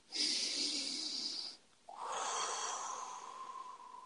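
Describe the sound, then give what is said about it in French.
A deep breath with no speech: a long, airy hissing inhale of about a second and a half, a short pause, then a slightly lower, steady exhale lasting about two seconds. “Alors, une respiration.”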